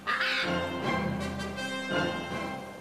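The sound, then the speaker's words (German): A parrot in a cage squawks loudly and harshly, a few raspy, screeching calls running together over about three seconds with no one talking. “Gib eine Papagei in den Käfig.”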